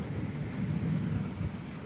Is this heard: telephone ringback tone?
no